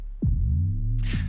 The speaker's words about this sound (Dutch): Misschien is het gewoon leuk om even een, een stukje muziek te gaan luisteren. Eh, die jullie maken. destijds hebben jullie een video gemaakt. En eh, dat klinkt ongeveer zo.